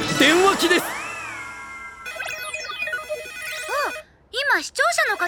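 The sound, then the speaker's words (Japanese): A telephone rings with an incoming call, bright, warbling electronic tones repeating in quick chirping bursts, after a brief voice at the start. “からお電話が来ました”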